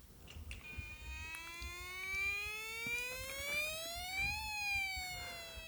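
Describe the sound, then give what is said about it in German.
An emergency doctor's vehicle comes around the corner with its siren wailing, a single long tone sweeping steadily upward and growing louder as it approaches, with low traffic rumble underneath and no talking. “Oh, und da kommt auch schon das NRF um die Ecke gefahren.”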